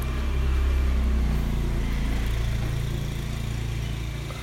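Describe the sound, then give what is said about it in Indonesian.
A motorcycle engine rumbles loudly with a deep, steady drone, its pitch shifting slightly partway through before fading a little at the end. No one speaks. “iklan ada motor bentar”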